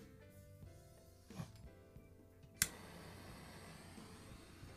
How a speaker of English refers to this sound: I gotta put the torch away from the microphone. I'm over here thinking this sounds cool, and then in your guys' headphones, you're like, ah